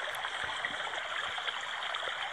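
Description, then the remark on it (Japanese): A steady babbling river stream, water flowing continuously with a soft, even rush and small bubbling details throughout, moderately quiet, with no voices. “川のせせらぎ音を聞け、です。”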